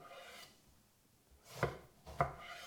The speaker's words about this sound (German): Somit habt ihr vier Scheiben einer Aubergine. Genau. Die drehen wir jetzt um 90 Grad und schneiden die in Stifte.